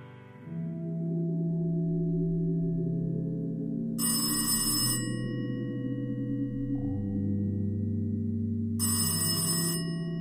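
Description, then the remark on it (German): A telephone on a hotel bedside table rings twice in the dark, waking a sleeper, in bright, clattering bursts a few seconds apart, over a steady low droning hum with no voices. “Ich muss keine zwei Stunden geschlafen haben als mich das Telefon auf dem Nachttischschränkchen weckt.”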